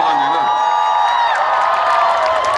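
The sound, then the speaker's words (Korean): A crowd claps and cheers together, a steady, loud wash of applause with scattered voices shouting and whooping throughout. “아, 참, 입, 입 들어갔는데 박수를 치고 그래.”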